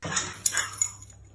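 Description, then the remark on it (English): Max, a French bulldog, lets out a few quick, high, yappy barks and whiny yips in a short burst in a video that went viral online, fairly loud over a low steady hum, with no talking. “Here's How My Dog Went Viral”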